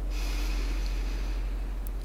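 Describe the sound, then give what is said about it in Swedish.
A long, deep breath drawn in through the nose during a breathing exercise, filling the ribs and belly, a steady airy hiss lasting about two seconds, with no talking over it. “Jag andas in och känner hur den far in i revbenen, in, in, in i magen.”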